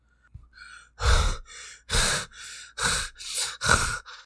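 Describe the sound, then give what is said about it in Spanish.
An injured woman, bleeding from her face, panting heavily while being dragged, with about six loud, ragged breaths in a steady rhythm, alternating harsh inhales and exhales, with no speech. “Jadeaba, mientras la sangre le escurría del rostro a los pies, dejando un camino rojo por donde la arrastraban.”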